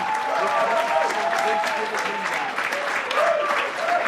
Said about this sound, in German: Und liebe Freunde im Franz Club, noch ehe jetzt das endgültige Ergebnis kommt, bitte ich euch nicht nur für einen warmen, sondern für einen tosenden Applaus ein Tosenapplaus